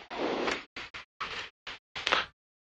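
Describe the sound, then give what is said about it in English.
A small aircraft cabin door being jiggled and worked at: a long scraping rattle followed by several short knocks and clunks, ending in a louder clack as the latch gives. “Trapped in here, I can't get it. Okay, there it goes. I had trouble with this door, too, before.”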